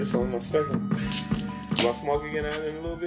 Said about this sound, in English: I gotta crack this beer.